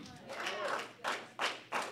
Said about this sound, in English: Come on, one clap. we all clap.